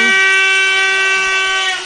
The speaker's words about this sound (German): Jetzt wird ja auch Publikum etwas wacher mit Hüten und Tröten.